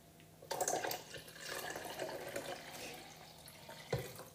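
water poured in

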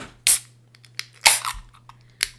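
beer being opened

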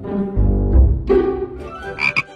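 frog croaking

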